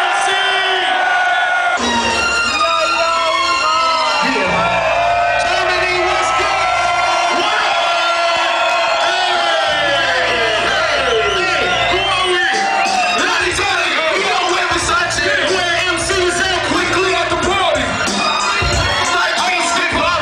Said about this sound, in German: On the count of three, I need y'all to scream, or this is gonna sit here and drink, alright? One, two, three, yeah!